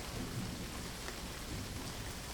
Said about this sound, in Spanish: Estaba oscurísimo y llovía copiosamente, pero aún así podía ver claramente la capilla porque la estructura resplandecía con una luz mortecina que no parecía venir de ninguna parte.